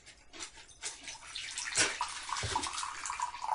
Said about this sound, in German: Das ist übrigens Tee, kein Urin, ne? Auch wenn es so klingt.